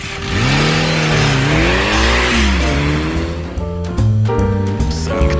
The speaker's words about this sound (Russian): Потом мы еще долго шепотом бронились друг с другом, стоя перед ее трюфельного света Лексисом, а хозяин дома выкатил байк из гаража и завел его.